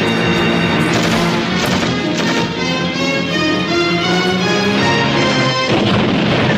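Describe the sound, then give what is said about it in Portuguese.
Loud, dense film battle audio: a continuous barrage of machine-gun fire and heavy blasts with crashing debris, building to a big explosion near the end as a small boat is blown into the air; no one speaking. “Explosão. Está o barco dele? É. Aí vai o barco pelo ar, às reboletas.”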